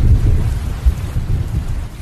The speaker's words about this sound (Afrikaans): Oh, het jy dit donder weer gehoor? O, oh, dit klink of daar 'n erge storm aan die kom is.